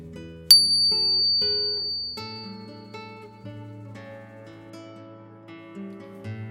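A soft, calming bell chime, played for relaxation, rings out and lingers over a low, sustained drone of layered tones, with fresh chimes blending in as the warm sound slowly fades. No one speaks.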